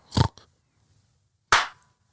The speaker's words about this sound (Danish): Og så klapper du